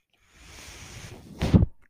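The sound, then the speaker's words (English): The speaker's own ventilator runs, with a steady airy hiss of airflow rising into a louder, brief whooshing puff near the end of the cycle, then cutting off. No one speaks. “That noise you're hearing is my ventilator.”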